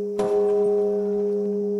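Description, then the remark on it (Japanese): A New Year's Eve temple bell at Jumon-ji temple is struck once, its deep, humming tone ringing out loud and steady with a long sustained resonance and no voices; the bell rings continuously, 24 hours a day, all year. “当時の住職が全自動加熱機器の設定を間違えたせいで108回で終わるはずの除夜の鐘が1088億8888万8888回鳴らすことになってしまい7年が経った今もなお365日24時間絶えず鐘の音が鳴り響いています”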